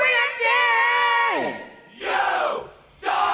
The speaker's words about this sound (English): Ah, uh, love that hockey choir. That hockey choir. yeah, hockey great. choirs rule.